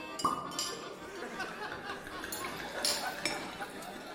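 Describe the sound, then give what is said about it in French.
Dishes and glasses clink a few times, sharp, over a steady murmur of indistinct chatter at a feast on the deck of a sailing ship, with wine, muscat and shrimps being served. “On a festoyé, dégustant muscat et crevettes, et même une raie pochée qui souriait encore.”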